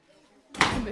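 After a moment of near quiet, a hammer with strings attached strikes a nail into a wooden table in one sharp, loud blow, followed by a brief clattering ring.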